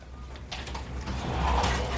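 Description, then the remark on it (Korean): A window slides open with a scraping, rumbling rasp that builds steadily over two seconds, fairly loud, with no voices; it is opened during a special writing class at a local culture centre, letting in a biting cold wind. “어우, 누구야? 칼바람 들어오는데 창문을 열고.”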